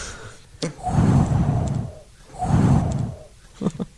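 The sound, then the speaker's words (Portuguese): Someone vocally imitates wind as a sound made for a music record, with two long, breathy whooshing blows that swell and fade, separated by a short pause, followed by a couple of small clicks or breaths at the end. “Esse disco eu tô fazendo muito macaco, barulho de vento, essas coisas, mas é...”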